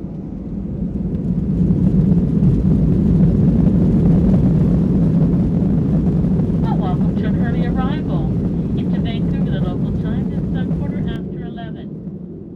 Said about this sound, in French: The next and final stop is Toronto Pearson International Airport. Titans, please be seated for takeoff.